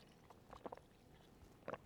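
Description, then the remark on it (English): A quick, quiet sip of water: a short cluster of soft wet mouth clicks and a swallow, then a brief gulp a second later. Nobody speaks. “So I'm gonna like take a quick sip of water.”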